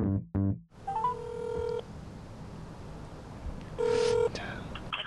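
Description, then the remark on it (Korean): A quick burst of telephone keypad tones opens, followed by two ringback tones, a long one and then a shorter one after a pause, over a faint hiss, as a call is placed on a Samsung Galaxy phone to Samsung's recruitment department. No one speaks. “대한민국 1등 기업 삼성 채용 담당 부서에 전화를 걸겠습니다.”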